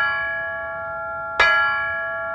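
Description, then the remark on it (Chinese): A large bell rings out with long sustained metallic tones, then a single hard strike near the middle sends a bright clang over the steady ringing, which keeps humming and slowly fading afterward; the bell is being struck with a big hammer to smash it into pieces. “哎！我的天哪，这么响，别人会听见的，赶紧捂住它。”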